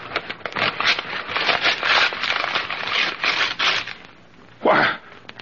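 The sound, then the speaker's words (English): A package holding an alarm clock being opened in a bathroom: a steady stretch of crackly paper rustling and tearing, a brief pause, then one last sharp rip. No voices are heard. “Might be safe to open it now.”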